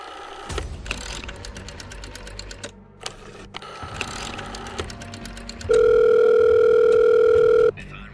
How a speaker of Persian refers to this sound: با دستای خونی و بیجونش در کشوی میز و باز کرد و یه دفتر در آورد دفتر رو ورق زد و تلفن رو برداشت یه شماره گرفت